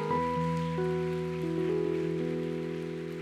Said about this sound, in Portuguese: Dá uma glória bem forte. Se, se, se quer aplaudir, aplaude logo, vai lá.